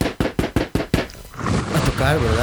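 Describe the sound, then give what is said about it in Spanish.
Six quick, evenly spaced, loud knocks on a door, followed by a person talking once the knocking stops. “toque la puerta, toque la puerta.”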